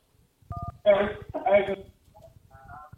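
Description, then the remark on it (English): A call from an unknown caller to a radio show connects: a short two-note dialing beep, then two loud bursts of crackly line noise, followed by quieter clustered tones as the line picks up. “All right, one more call, man, and then we're gonna we're gonna we're gonna uh unknown caller.”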